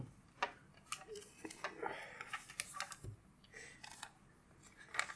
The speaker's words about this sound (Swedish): Jag skriver upp alla så här liksom i, på ett litet papper.